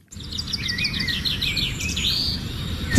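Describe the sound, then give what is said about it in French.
Small birds chirp and twitter busily outdoors at the La Flèche zoo in sunshine, a steady run of high, quick repeated notes over a low ambient rumble, continuous throughout. “On entend euh, voilà ces petits oiseaux et on a aperçu les éléphants pour venir jusqu'ici.”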